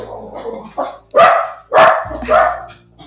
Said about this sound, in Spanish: Por supuesto, estamos por la tarde y por la tarde es momento ladrido, lo siento,